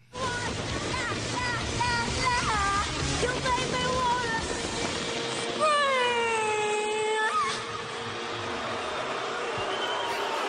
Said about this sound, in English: And this song totally sucks. And she was booed off the stage. Take a listen.